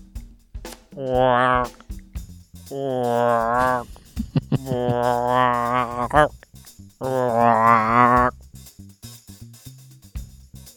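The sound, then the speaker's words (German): A person imitates a frog's croak with three long, low, raspy vocal calls, each lasting a second or two, separated by short pauses and audible breaths. “würde ich sagen, eindeutig der Frosch.”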